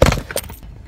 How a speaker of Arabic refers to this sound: الكاميرا وقعت